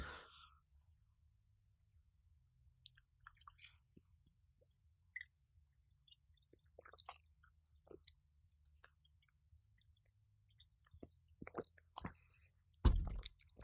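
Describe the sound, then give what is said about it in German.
Outdoor night ambience in a garden: a steady, rhythmic chorus of high-pitched crickets fills the background over a low hum, with occasional soft rustles and a brief louder knock near the end. No one speaks. “jetzt mal ganz kurz, wenn ich was trinke, äh, gehe ich ein bisschen weiter weg, um die, Gesamtkul die Gesamtgeräuschkulisse hier einzufangen vielleicht.”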